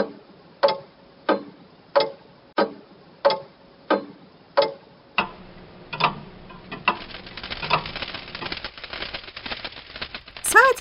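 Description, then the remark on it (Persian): A big old wall clock, over thirty years in service, ticks in a steady, even rhythm, about eight sharp clicks, then the ticking stops as it breaks down and a jumble of scraping, rustling noise takes over. “صدای ساییدن چیزی به گوش رسید اون وقت تالاپی یه چیزی افتاد بعدم ساعت دیواری پیر بیچاره از تیک تیک افتاد”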